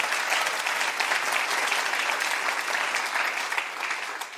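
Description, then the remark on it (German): A church audience applauds for Jesus steadily, a dense, even wash of many hands clapping that holds at a fairly loud level for the whole stretch without letting up. “Lasst uns Jesus einen Applaus geben.”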